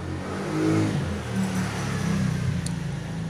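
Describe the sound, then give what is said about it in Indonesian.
A motorcycle engine drones past, a steady low rumble with slight revving that swells around the middle and then holds, with no voices present. “maaf kalau ada motor lewat”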